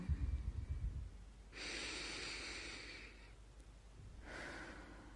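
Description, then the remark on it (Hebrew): A slow, deep breath drawn in for about a second and a half, a pause, then a shorter airy exhale, with no talking. “אני רוצה רגע להזמין אותך, אם הקשבת עד כאן, לקחת שנייה נשימה עמוקה.”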